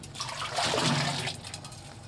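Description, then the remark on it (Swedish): A steady gush of dissolved dye being poured into a washing machine drum for dyeing fabric an even colour, swelling in the middle and running for about two seconds with no talking. “Så häller jag i det här i min thaimaskin.”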